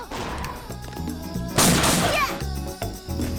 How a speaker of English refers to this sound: Smashing some boxes.